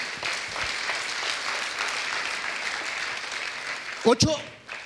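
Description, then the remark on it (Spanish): A crowd claps steadily for the Lord in a dense, sustained wash of applause lasting several seconds, then a voice briefly cuts through near the end as the clapping fades. “Déselo fuerte al Señor.”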